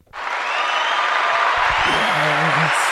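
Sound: fake applause sound effect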